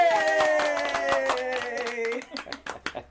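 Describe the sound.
A burst of applause for a girl's kitchen duty, making waffle batter and spreading jam, with many hands clapping quickly and irregularly, mixed with a sustained voice in the first two seconds before the clapping thins to a few scattered claps.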